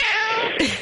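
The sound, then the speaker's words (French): A long-haired tabby cat lets out a drawn-out, insistent meow, its pitch bending and rising toward the end, with no talking over it. “C'est que j'ai un chat, donc qui est c'est un chat tigré, donc à poil long, Oui.”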